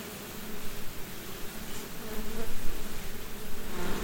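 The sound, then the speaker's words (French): A dense, steady hum of many Caucasian honeybees buzzing around a honey-production hive in a stationary apiary, continuous, with the drone swelling slightly in the second half and no voices. “Donc ici, c'est une ruche de production qui est destinée à faire du miel.”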